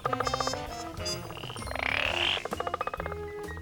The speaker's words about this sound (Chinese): 这是青蛙叫。青蛙最喜欢下雨之前就出来唱歌了。